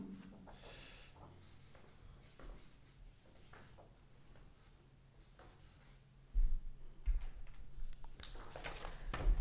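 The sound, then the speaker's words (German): A pen scratches across paper in short, irregular strokes, fairly quiet at first, then growing louder and busier toward the end, with no talking. “Leute haben den Stift schon in der Hand.”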